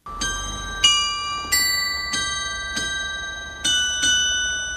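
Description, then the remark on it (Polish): Carillon bells on the corner of the Kulow town hall, bells from the Thuringian town of Kölleda, ring out a slow melody, six or seven bright struck tones about once every half second to second, each leaving a long shimmering ring that overlaps the next, with no voices. “nasze dzwonczki zaklincza. A to na różku z czyny kuluskiej mieszczanskiej radnicy.”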